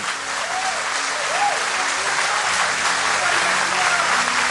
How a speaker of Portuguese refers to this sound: Você se aplausa para ele, irmão. Aplauda de verdade.